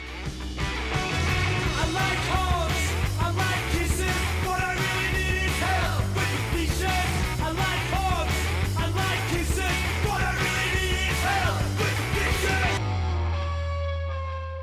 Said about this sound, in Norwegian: Vi skal eh, høre mer musikk.